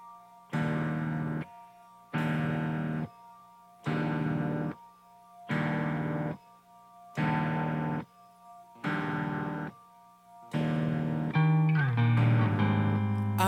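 A band's music track opens with loud, effects-heavy distorted chords struck in a steady pattern, each held about a second and separated by brief silences, before swelling into a continuous fuller sound.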